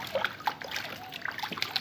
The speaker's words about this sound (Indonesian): Dengarkan suara airnya.